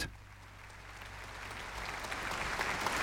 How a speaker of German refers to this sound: Wäre nicht nötig So viel Applaus haben wir selten bekommen.